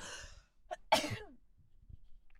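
A single sharp sneeze bursts out after a breathy intake, then fades into quiet with a few soft breaths; a person sneezing while sitting in a car at an Esso petrol station.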